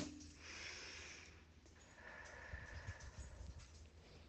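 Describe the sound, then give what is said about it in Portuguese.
A single slow, deep breath, the first of three deep breaths: a soft, airy inhale followed by a longer, steady exhale, fairly quiet, with no talking. “Quando você estiver pronto, faça três respirações bem profundas.”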